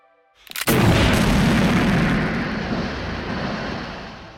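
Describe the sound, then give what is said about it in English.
A single thunderous shot from a Barrett .50 caliber sniper rifle, recorded for rethinking a film's blaster sound, cracks out after a brief silence, followed by a long, heavy rumbling tail that slowly fades over several seconds. “So I recorded a Barrett 50 cal, which is this gigantic sniper rifle”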